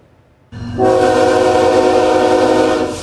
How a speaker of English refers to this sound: The rattle of empty coal cars returning stateside along White Rock Beach.